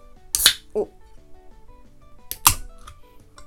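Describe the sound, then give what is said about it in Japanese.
A can of Sapporo's new lemon sour is cracked open at around 11 p.m.: a sharp pop-and-hiss burst, then a second crisp burst a couple of seconds later, with a brief voice murmur between. “まあレモンサワーだったら何でもよかったんで買いましたじゃあ開けますね聞こえるかなプシュ”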